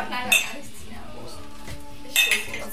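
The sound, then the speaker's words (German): Two bright clinks of glass or ceramic mugs of mulled wine knocking together in a toast, about two seconds apart, with faint room murmur in between. “Zum Glück haben wir Glühwein, ja. oder? Glühwein ist das Einzige, was mein Herz noch erwärmt.”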